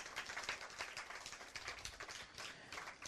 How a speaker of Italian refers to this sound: Grazie per l'applauso.